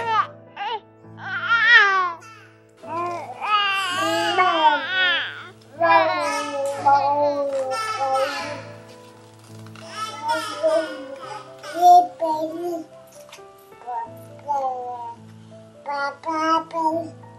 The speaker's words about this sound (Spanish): Te dejamos escuchando los balbuceos de algunos bebés con menos de un año de edad.